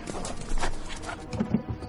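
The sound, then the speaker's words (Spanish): Hooves clip-clop in a quick, steady rhythm like a horse pulling a carriage, fairly loud, with a few heavier knocks near the end. “Si parezco la calesi.”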